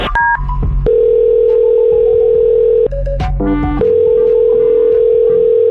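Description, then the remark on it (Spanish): A steady, loud telephone dial tone hums on, broken by short bursts of beeping keypad tones as a call to a man's wife is dialed, then the tone resumes. No one speaks. “Ahí estamos marcando.”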